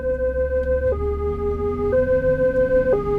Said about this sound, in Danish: Så skulle vi også bruge nogle ambulancelyde.